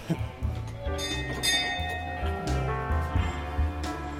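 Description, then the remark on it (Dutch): A doorbell chimes, playing a short run of ringing, bell-like notes that overlap and linger for several seconds over faint background noise. “De bel.”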